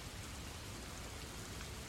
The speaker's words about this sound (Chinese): 对面的宿舍楼耸立在黑暗里，被雨水和雨声包裹。